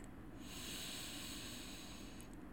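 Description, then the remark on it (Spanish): A long, steady, deep breath drawn in through the nose during a guided breathing exercise, a soft airy hiss lasting a couple of seconds, quiet with no talking. “Una vez más, inhalas profundo por la nariz.”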